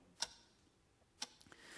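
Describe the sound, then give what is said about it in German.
A clock ticks with two crisp, evenly spaced clicks about a second apart, quiet against a soft background hiss, with no voices. “Aber warum stört uns eigentlich das Ticken der Uhr?”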